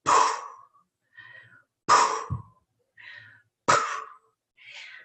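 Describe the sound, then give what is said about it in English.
A person imitates a beluga whale blowing: three forceful, breathy exhalation bursts at an even pace, each followed by a softer, airy intake, with no talking. “and we went to see what was going on and i said i know that sound i know that sound but and we got down there and there were over 30 beluga whales all ages all sizes”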